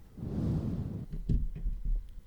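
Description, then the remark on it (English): A person who keeps falling asleep breathes loudly straight into the microphone as a long rushing exhale, followed by a few softer puffs and bumps. No one speaks. “Oh, so uh, breathing too loud, because what? you keep falling asleep.”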